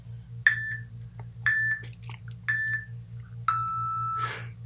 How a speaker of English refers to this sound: Okay, here we go and you get some beeps.